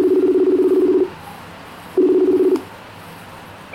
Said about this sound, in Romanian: După ce am mai parcurs-o de câteva ori, am dat un telefon.